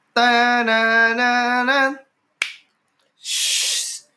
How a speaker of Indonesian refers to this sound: Ah, bumper di tengah nggak pernah dengar kan iya. kalian setelah tiga puluh empat, biar kalian penasaran bumpernya di mana nah ini di tengah bumpernya